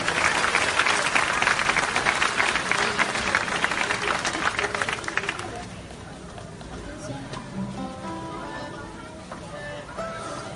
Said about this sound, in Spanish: Y un aplauso muy fuerte, por favor, para todos estos niños y para sus familias que han hecho posible que estén participando en el taller durante todos estos días. Un fuerte aplauso para todos ellos.